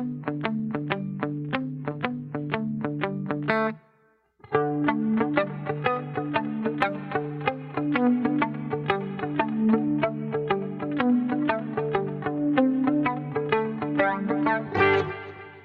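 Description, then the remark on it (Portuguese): A music demo: a repeating synth or guitar riff plays loud without a flanger effect, cutting out briefly after a few seconds, then returning with a swirling, sweeping flanger effect layered over the rhythm. “Sem o flanger, ele, ele é essa coisa, essa coisa meio xoxinha aqui, quer ver?”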